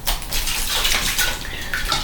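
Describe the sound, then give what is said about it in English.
A child playing in water, splashing and sloshing continuously, with a steady wash of droplets and small bright splashes at a moderate level and no talking. “it sounds like I'm in a bathtub. I'm actually not. That is actually Thomas playing in water”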